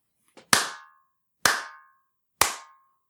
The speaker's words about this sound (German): Da kann man jetzt ganz deutlich so einen metallischen Nachhall hören.